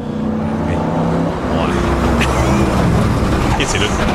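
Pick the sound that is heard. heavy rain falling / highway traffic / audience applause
highway traffic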